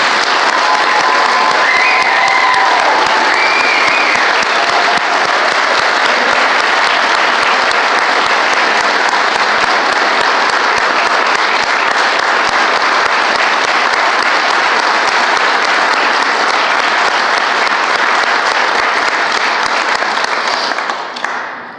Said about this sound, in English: Let's give these guys a huge round of applause.